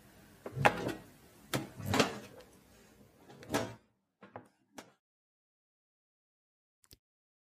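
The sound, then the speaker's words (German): A door swings and thuds shut, with a few knocks and rattles over about four seconds, followed by a couple of small clicks and then quiet. Fairly loud, no voices. “Vorsichtig ging er darauf zu und schloss die Tür”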